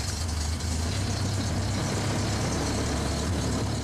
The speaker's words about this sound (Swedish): När vi ätit och snyggat till oss körde en taxi fram till stugan. Vi tog farväl av gränssoldaterna och satte oss i baksätet. bilen körde iväg.